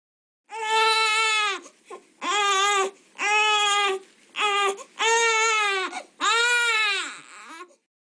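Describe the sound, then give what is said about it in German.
A baby wails loudly in a series of long, high-pitched cries, about six bursts separated by short gasping breaths, with a falling whimper at the end. No one speaks. “Ich glaube, die meisten werden jetzt denken, oh je, da schreit ein Kind, dem es nicht gut geht.”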